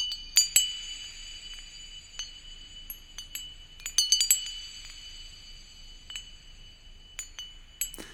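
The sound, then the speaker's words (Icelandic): Sparse, high bell tones struck at irregular intervals, each ringing on with a bright shimmer, with a brief cluster of strikes midway and no voices or other instruments; a piece of music with everything stripped away except the bell sound. “Þarna var japanski meistarinn búin að taka allt í burtu nema bjöllu hljóminn einan.”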